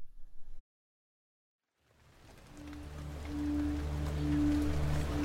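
After a brief silence, steady rain fades in as a dense, even hiss that grows louder and continues to the end, with a low droning hum underneath.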